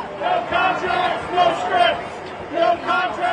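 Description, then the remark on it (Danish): A crowd of several hundred protesting writers, walking in a circle in front of the Motion Picture Association building, chants slogans such as "we want fair rights" in rhythmic unison, voices rising and falling in repeated bursts, loud against a steady background of crowd noise. “Jamen, de foregår ved, at forfattere samles hver dag faktisk, flere hundrede, og så går de i sådan en cirkel foran øh, den bygning, hvor Motion Picture Association holder til, og så råber det, vi want fair rights.”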